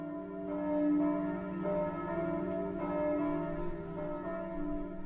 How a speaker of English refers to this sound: we hear the bells ringing at one point, and so it seems like there is no hope and that there may not be any people left.